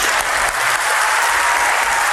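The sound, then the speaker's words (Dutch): Loud, sustained applause from a large crowd giving a standing ovation in the European Parliament, a dense continuous wash of clapping with no pauses and no voices standing out above it. “En niet zomaar applaus, een staande ovatie van het Europees Parlement voor deze agenda gedreven mevrouw.”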